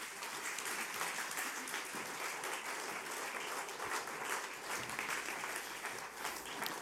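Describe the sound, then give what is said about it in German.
Sustained audience applause for people who have just told their story, a dense, steady clatter of many hands clapping at an even loudness throughout, with no voices rising above it. “Lass uns Ihnen einen herzlichen Applaus geben.”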